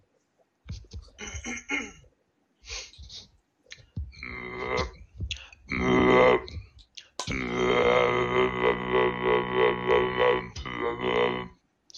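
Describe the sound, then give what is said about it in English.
A voice makes a few short guttural bursts, then holds a loud, buzzy, low drone for about four seconds, imitating a didgeridoo, with a brief spoken word at the start. “You sound like a didgeridoo.”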